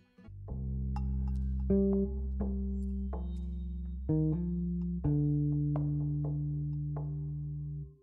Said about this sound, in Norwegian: Litt eh, fransk musikk eh, står snart for tur.